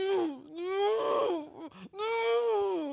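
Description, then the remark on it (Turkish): A human voice imitates a crushed, dying mosquito with a sustained, wavering, nasal whine that rises and falls in two long drawn-out stretches, separated by a short break of breathy sounds. “ölmekte olan yani tarafımızdan ezilmiş ve hafiften can çekişen bir sivrisineğin öf yine vızladım şeklinde e, bir pişmanlık Yine içerisinde olduğunu duyar gibiyim.”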